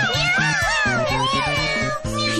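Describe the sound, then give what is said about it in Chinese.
Three kittens, Pike, Mengmeng and Xiaoji, give several high, sliding meows that overlap in quick succession, bending up and down in pitch over a steady rhythmic musical backing. “还有三只小猫咪，皮克，喵，梦梦，喵，还有小吉，喵喵喵。”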